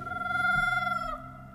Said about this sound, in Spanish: El chillido fue desesperante. La criatura desconocida había quedado atrapada bajo las rocas y ahora emitía un sonido desgarrador. Pero no era precisamente un grito de dolor.